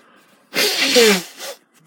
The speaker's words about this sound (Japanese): 鼻かみます。